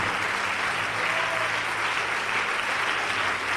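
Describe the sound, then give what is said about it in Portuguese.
A church audience applauds the Lord steadily, a dense, continuous wash of many hands clapping at an even, fairly loud level with no voices standing out. “Vamos aplaudir mais o Senhor.”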